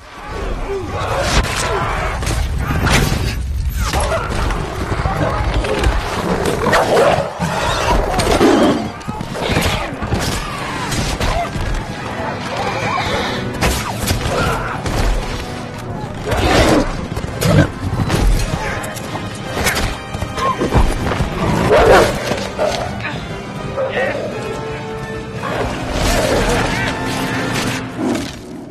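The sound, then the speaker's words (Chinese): A loud, chaotic battle: Saruman's wolf riders ambush the King of Rohan's column of travellers, full of roaring, galloping hooves and repeated crashing impacts, with shouting voices woven through the continuous din. “萨鲁曼能放过此等好机会？果断派出了狼骑兵伏击。”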